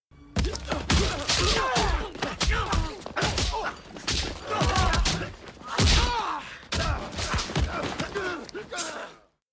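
A rapid, relentless flurry of punch impacts from a Jackie Chan martial arts film fight, sharp thuds and smacks landing in quick bursts, mixed with grunts and gasps from the fighters, loud throughout.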